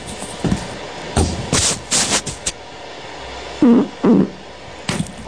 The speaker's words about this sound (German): Haben wir es gehört? Jemand hat gehört, dass du gerade gepupst hast.